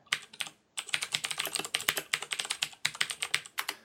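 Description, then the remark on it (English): Rapid clicking of keys on a computer keyboard, a dense run of sharp taps with a brief pause near the start, fairly quiet, with no voices. “I don't remember exactly what episode that is in, unfortunately, but that's the fakest typing noise I've ever heard.”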